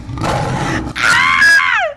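wild boar grunting

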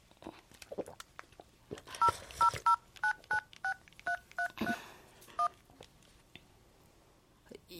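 telephone number being dialed

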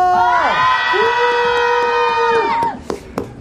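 audience cheering and shouting

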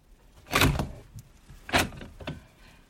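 door being opened

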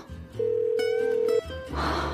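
phone call ringing unanswered

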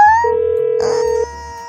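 phone ringback tone

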